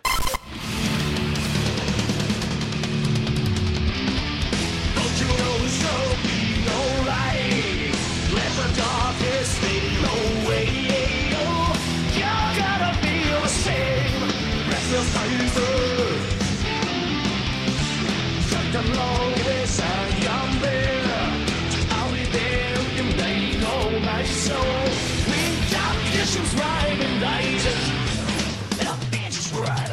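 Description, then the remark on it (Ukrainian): A computer-generated music piece plays steadily for the whole stretch, dense and loud, with a full low end, busy midrange notes and bright high textures, driven by a constant rhythmic pulse and no talking. “вся ця музика комп'ютерно згенерована.”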